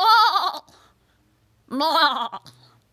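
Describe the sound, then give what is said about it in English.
A goat bleats twice, loud, each call a quavering, wavering cry lasting about half a second, separated by a short pause; a sound effect called Inspiration Goat. “Inspiration Goat, bleat at me, please.”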